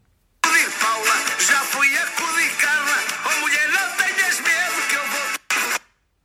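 A song plays loudly and continuously, a wavering sung vocal line over dense instrumental backing, cutting out for a brief moment near the end before resuming and stopping.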